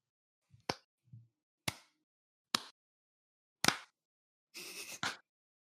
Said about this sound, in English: All right, uh, I just need everyone to clap so I can sync up the audio later.